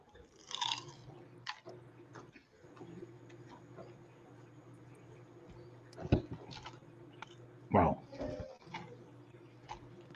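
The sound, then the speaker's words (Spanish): Crunchy chewing of flaky, completely crisp baklava, with irregular crisp bites and a few louder crackling crunches standing out over a low steady background hum. “El baklava. Que está crujiente, completamente crujiente.”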